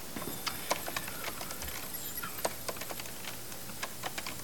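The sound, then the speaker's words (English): Rapid, irregular clicks of keys being pressed on a computer keyboard as someone types a name to search a computer system. The clicks are fairly quiet, with a few sharper taps standing out over a low background hum. “I'm Whoa. just pressing keys.”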